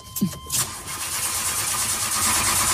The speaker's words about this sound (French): Je suis devant la fusée qui va décoller. Vous entendez les moteurs derrière moi.